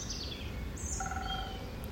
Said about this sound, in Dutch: Voor mijn werk zit ik op dit moment in Hilversum. En zo ochtends vroeg hoor ik in die lommerrijke buurten daar mooie geluiden. Duiven.